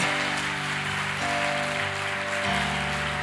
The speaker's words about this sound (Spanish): Dele fuerte ese aplauso por los que se convierten hoy.